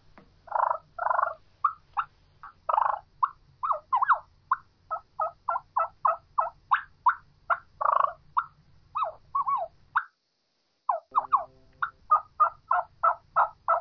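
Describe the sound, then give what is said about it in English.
A turkey mouth call imitates a soft, contented feeding hen: a steady run of short clucks and quiet purring notes, briefly pausing before resuming the same even rhythm, with no talking. “There's nothing excited about that. Very mm-hmm. soft, very subtle. That's a feeding hen.”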